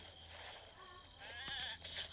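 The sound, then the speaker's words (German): A goat bleats in a wavering, nasal cry lasting under a second, fairly loud, over a steady low hum and background noise with no talking. “Komm doch, hässliche Ziege, Alter.”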